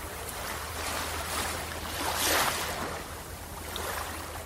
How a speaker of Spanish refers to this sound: escuchamos la orilla del mar o de las olas, cómo explotan o cómo revientan en esos momentos, haciéndolo muy agradable para nuestra vista y nuestros oídos.